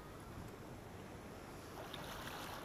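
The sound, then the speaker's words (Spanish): Steady, broad wash of sea waves rolling continuously with a low, rumbling undertone, even in loudness, with no voices present. “Duerme concentrado con el mar y con mi voz”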